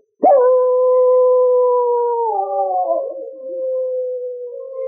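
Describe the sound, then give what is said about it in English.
A dog, Ricky, lets out one long, sustained howl at the full moon one evening after nosing open a cabin door, loud, holding a steady tone before wavering and sliding slightly lower toward the end, with no other sounds around it. “One evening, Ricky nosed open the door of the cabin and howled at the full moon.”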